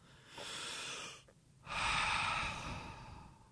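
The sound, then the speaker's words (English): A slow, deep breath drawn in, a brief pause, then a longer, louder exhale, with no talking. “But when you mentally think about it and say, I'm going to sit here, take a deep breath, and calm down.”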